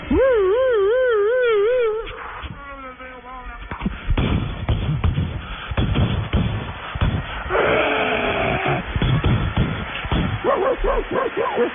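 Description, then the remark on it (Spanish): Dogs whimper with high, wavering whines, then yelp and bark in short bursts over a loud, busy crowd at a football stadium as riot police enter during a pitch invasion, with another stretch of whining and a cluster of barks near the end. “perros y todos.”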